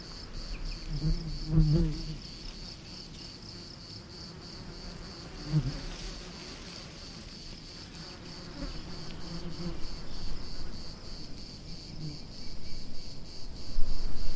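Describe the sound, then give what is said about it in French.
A steady buzzing of many bees at work among flowers, a continuous hum with wings whirring in and out, occasional louder passes, and no talking. “Ce son apaisant, on entend ce bruissement des ailes ce, bruit des abeilles.”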